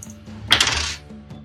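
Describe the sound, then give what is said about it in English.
A full set of dice clatters across a hard table in a quick burst of bright rattling clicks lasting about half a second, then fading to quiet. “so very rarely use my full complement of dice.”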